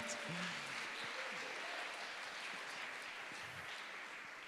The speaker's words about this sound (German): Ihr könnt ihm schon mal einen Applaus geben, wenn er sich auf den Weg macht.